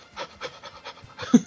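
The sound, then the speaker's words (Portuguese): A person imitates a panting labrador dog with a quick run of breathy, rhythmic huffs, ending in a couple of louder, harsher pants. “Focinho, focinho de labrador. Imagina, cara, você parado e ele fazendo.”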